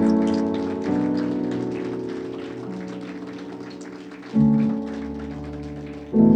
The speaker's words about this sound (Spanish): ¿Cuánto levanta la mano y adora la gloria de Dios? Si le vas a dar un aplauso a Dios, dáselo fuerte.